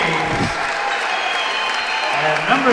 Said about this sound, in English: Ford gets his standing O.